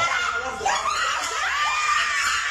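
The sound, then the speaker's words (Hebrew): High-pitched, frantic screaming and shouting fill the whole stretch, loud, with overlapping voices rising and wavering continuously and no clear words, in a bank in Lebanon after a woman drew a weapon. “הופה, שלפה את הנשק, בעלה, צעקות, צרחות, מה קורה שמה?”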